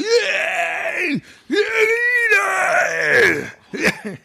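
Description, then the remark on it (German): A voice lets out long, loud wailing screams and bawls in several drawn-out bursts with brief pauses between them, strained. “Ich schrei doch immer so rum und grölt. Jetzt musste ich mir mal kurz den Kopfhörer abnehmen.”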